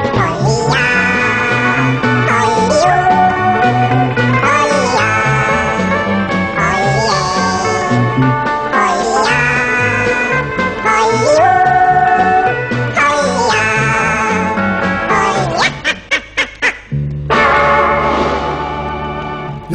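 An early-sixties Swedish pop record with electric guitar, released on the Record label in December 1963, plays loud and steady, with melodic lines over a driving beat, ending in a run of sharp staccato stabs and a final held chord.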